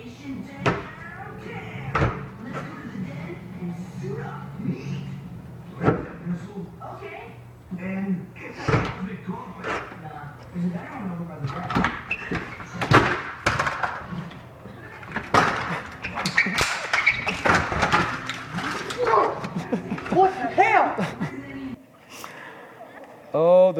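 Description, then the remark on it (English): In a comedy skit, a screen door slams repeatedly, sharp and loud, in an irregular rhythm, while agitated voices shout and gasp throughout. “screen door.”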